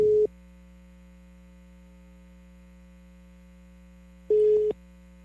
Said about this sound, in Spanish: El teléfono. No, no sale, no sale.